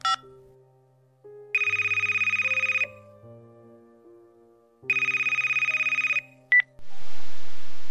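An old-fashioned mobile phone beeps through a short dialing sequence of key tones as a number is dialed, then two long, loud electronic ringing bursts sound, followed by a click and a burst of hiss at the end.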